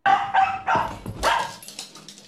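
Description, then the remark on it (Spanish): A dog in a played video barks three times in quick, loud bursts, followed by a few softer, shorter yips trailing off. No one speaks. “El perro está buscando más, güey.”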